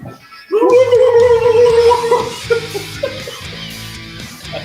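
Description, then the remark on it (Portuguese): A voice imitates a turkey's gobble, following the sung line 'if you're happy, make a turkey', with a loud, warbling, high-pitched call held for about two seconds, then trailing off into quieter, rougher vocal noises. “Se você está contente, quer mostrar toda a gente, se você está contente, faz um peru.”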